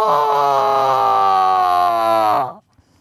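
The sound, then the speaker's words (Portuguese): A voice imitates a cow's moo for a sheep in a story that moos instead of bleating when a vet asks it to open its mouth, one long, loud, sustained low "moo" lasting about two and a half seconds with a slightly wavering pitch before cutting off into silence. “Apenas um mu em vez do me.”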